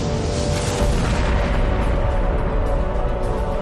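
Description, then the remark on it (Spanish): A loud explosion boom sound effect rolls on as a sustained, deep rumble with broad crackling hiss layered over it, filling the whole moment without any voices; it depicts the explosion that set the universe in motion about 13.7 billion years ago. “Hace unos 13.700 millones de años, un acontecimiento misterioso puso el universo en marcha, con una explosión.”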